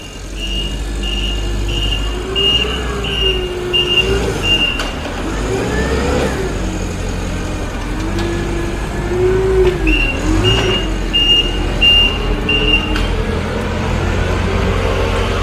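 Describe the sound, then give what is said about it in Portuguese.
A forklift engine rumbles steadily as it arrives, while a high, regular reversing beep pulses in two bursts, pausing in between, with no one speaking. “tá que chegando aqui com a sua empilhadeira aqui no alto.”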